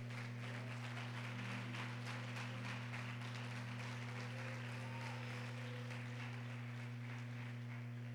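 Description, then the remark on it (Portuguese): An audience applauds the Lord in a steady, dense wash of clapping that lasts the whole stretch, fairly soft overall, over a constant low electrical hum. No one speaks. “Natanael, essa chave que eu coloquei nas tuas mãos, pode aplaudir o Senhor aí.”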